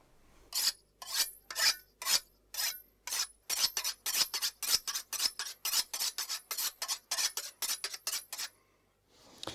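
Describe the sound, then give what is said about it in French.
Rhythmic rasping strokes of a hard ingredient being grated onto a salad, about twenty quick scrapes in a steady back-and-forth pattern, fairly loud, with no talking. “et puis on va faire un, une espèce de truc tout dur pour le râper sur la salade.”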